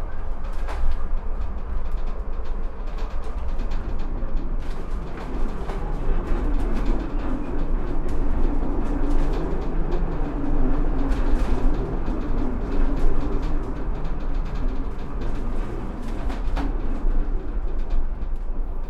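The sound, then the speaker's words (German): A steady rumble of a 1929 funicular railway car in Stuttgart grinding uphill along its track toward the forest cemetery, with occasional clanks and rattles and faint bird calls in the background; no one speaks. “eine Fahrt mit der urigen Standseilbahn aus dem Jahre 1929 lasse ich mir nicht entgehen”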